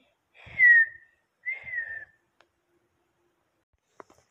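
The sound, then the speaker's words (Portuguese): Two short, clear whistled notes, each sliding downward, like a child mimicking a bird call, separated by a brief pause, followed by a few faint clicks near the end. “lá fora eu ouvi um passarinho cantando e, e depois eu ouvi outro fazer.”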